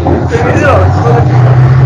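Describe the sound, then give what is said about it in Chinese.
A loud motorcycle engine drones steadily for about two seconds, a low, rough rumble with a persistent hum that holds at an even level throughout. “呃，稍等一下，谁的摩托车声音很大？”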